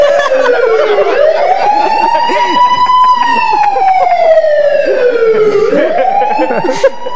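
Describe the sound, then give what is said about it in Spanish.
A loud police siren from approaching patrol cars wails in long, slow sweeps, rising and falling in pitch twice and holding steady in volume throughout, with a busy rumble of traffic noise underneath. “Eh, y ya de repente ya se venían que venían las patrullas.”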